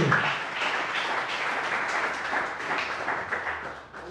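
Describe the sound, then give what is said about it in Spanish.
An audience at a church sermon applauds the Lord, many hands clapping in a dense, even wash of sound that holds fairly constant for about four seconds before tapering slightly at the end. No one speaks. “Den un aplauso al bendito.”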